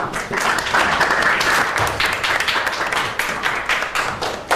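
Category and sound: crowd, classroom applause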